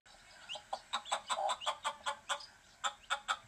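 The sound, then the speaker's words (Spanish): A hen clucks in a quick, steady series of short sharp calls, about a dozen in a row with a brief pause near the end, clear with no one talking. “Y cacareando se fue con él.”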